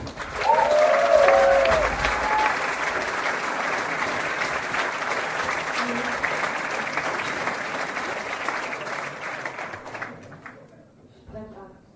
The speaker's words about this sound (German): Wir bitten um einen großen Applaus für die letzte Teilnehmerin heute Abend